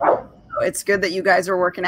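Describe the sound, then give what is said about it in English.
A dog barks briefly at the start, somewhat in the background, and then a person speaks over the rest of the moment, with the barking faint beneath the voice. “Sorry, you guys can probably hear the dogs barking.”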